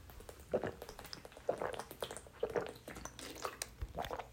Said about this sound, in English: I'm sorry, you will had to hear that. I've been told that I swallow water really loud.